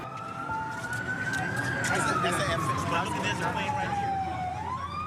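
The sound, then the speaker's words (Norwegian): A police car siren wails steadily, its tone slowly climbing and then sliding back down, loud against a busy wash of background noise and faint voices, as the police car drives toward the Twin Towers. “og blitt plukket opp av en politibil. En av politifolkene gir ham en hjelm, og de kjører videre mot tvillingtårnene.”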